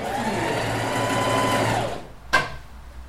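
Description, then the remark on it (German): A sewing machine, run by a foot pedal, whirs steadily for about two seconds, then stops and is followed by a single sharp mechanical clack. No one speaks. “Genau, den Nähmaschinenfuß.”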